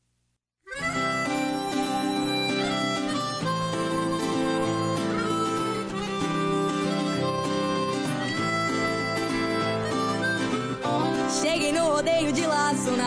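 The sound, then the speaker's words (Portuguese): After a split second of silence, a song kicks in with full instrumentation, playing loud and steady without letup for the rest of the stretch, prominent. “vamos descontrair os gauchinhos com a canção …. Solta o som!”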